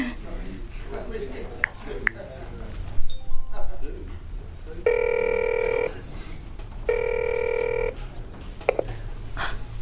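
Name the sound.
telephone ringing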